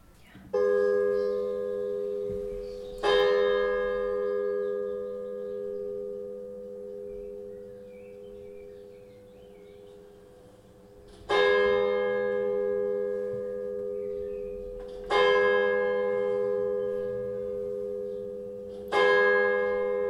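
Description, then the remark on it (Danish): Church bells ring out in slow, uneven strokes, each loud clang leaving a long humming resonance that fades before the next strike. Five full strikes sound over about twenty seconds, heard at a residence lying between three churches. “Der er nogen i ejendommen, der er irriteret over kirkeklokkerne.”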